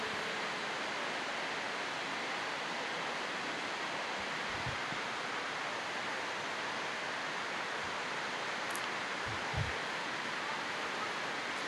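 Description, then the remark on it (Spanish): Heavy rain pours down in a dense, unbroken hiss that holds a steady level throughout, with a couple of soft low thumps and no voices. “si quieren apoyarme desde el ruido de la, de la de la lluvia.”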